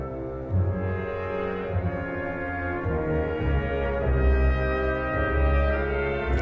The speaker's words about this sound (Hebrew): שנייה, המוטיב הראשון הוא זה. מתחיל באותו פעמון, באותו גונג.